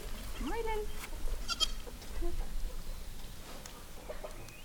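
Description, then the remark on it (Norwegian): A goat bleats with a wavering cry near the start, followed by scattered clucks and farmyard bustle in a goat barn during tending and milking of the goats, with faint voices murmuring in the background. “tatt oss med til fjøset, på stell og mjølking av geitene, og sluppet de ut på bøen.”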